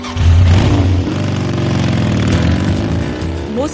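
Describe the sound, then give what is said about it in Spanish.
A loud motorcycle engine, a bike used for commuting between work and home, revs up, its rumbling pitch rising and sliding through harmonics before settling into a steady throaty growl over a few seconds. “Bandy puso rumbo a Pasadena, en California, para unirse al equipo del proyecto Mars Rover, y se llevó su moto”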